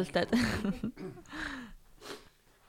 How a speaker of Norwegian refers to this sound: Det var bare litt sånn hosteanfall som plutselig dukket opp.